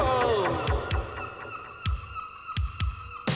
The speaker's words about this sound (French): Oh, ce bruit de mouette.